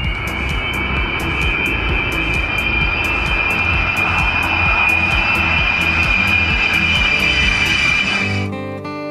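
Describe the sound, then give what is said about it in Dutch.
A loud, continuous jet roar of a B-52 bomber landing in England, with a steady high whine over rumbling low engine noise and regular rhythmic clicks, cutting off abruptly near the end. “Want vanmorgen zijn er maar liefst 6 B-52's geland in op in Engeland.”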